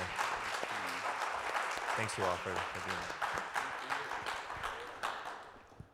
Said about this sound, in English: Thanks, everyone. Could we just have a round of applause for our panelists here?